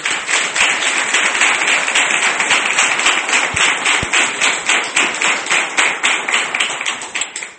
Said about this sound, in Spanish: Un aplauso para ellos.